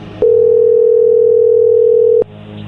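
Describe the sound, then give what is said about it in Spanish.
A steady, loud telephone dial tone holds for about two seconds while a call is being redialed, starting and stopping abruptly. “A ver, oye, ya colgó. Deja de decir lo mismo. márquele de nuevo.”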